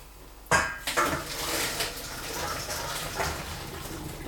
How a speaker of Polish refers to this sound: Ja sobie tutaj jeszcze odcedzę i zahartuję makaron.